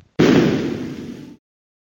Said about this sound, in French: Mais pendant qu'elle quitte la Terre, qu'elle donne toute son énergie à atteindre son but, son carburant progressivement se vide, s'épuise créant en parallèle une surchauffe du moteur jusqu'à l'explosion de l'engin.